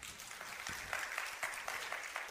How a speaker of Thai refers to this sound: เราตบมือให้พระเจ้าดีไหมครับ